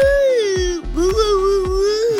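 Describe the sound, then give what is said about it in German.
A voice imitates a singing cow, holding a long, wavering, nasal moo-like tone with a slight pitch rise and dip, loud and sustained over steady rhythmic thumps. “Eine singende Kuh.”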